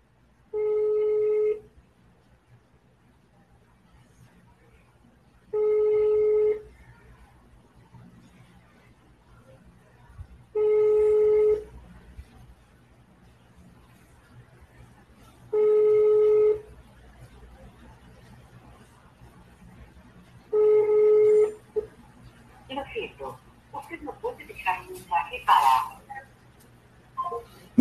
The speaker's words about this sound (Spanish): Vamos a llamarlo a ver si contesta.